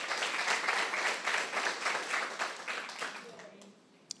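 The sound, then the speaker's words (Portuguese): An audience breaks into dense, steady applause, many hands clapping together at a fairly loud level, then the clapping thins and fades out over the last second. “Pode aplaudir mesmo.”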